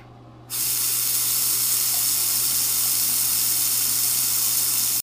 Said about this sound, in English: Then he heard running water in the bathroom.